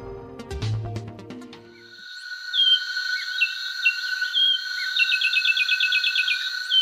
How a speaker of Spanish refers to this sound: Así canta el pinzón con el rostro, un pájaro de 16 centímetros de altura que tiene la cabeza gris con dos estrías negras en la coronilla y una lista ocular negra que se prolonga hasta la nuca.